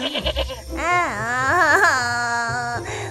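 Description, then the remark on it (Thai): A goat bleats once in a long, loud, quavering cry lasting about two seconds, after a few short stuttering sounds at the start; the goat is crying while sitting by the roadside. “แพะได้อาสาไปไล่แม่วัว แต่แพะนั้นไล่แม่วัวไม่สำเร็จแพะจึงได้มานั่งร้องไห้อยู่กับจงที่ริมทาง”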